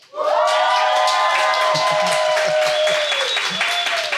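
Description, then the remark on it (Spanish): A large live crowd in Atillo, Puerto Rico, shouting on cue after a count of three, erupts into loud, sustained shouting and cheering all at once, with high whoops and clapping mixed in, holding steady for several seconds. “Bueno, mi gente, pues como les había mencionado, me encuentro aquí en Atillo, Puerto Rico, y para que ustedes escuchen cuántos me están acompañando, bueno, mi gente, este es el momento de gritar.”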